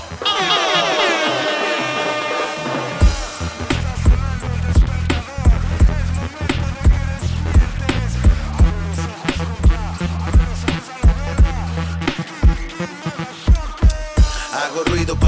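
A hip hop song opens with gliding, siren-like synth tones, then a loud, punchy drum beat and heavy bass kick in and drive steadily for the rest of the track.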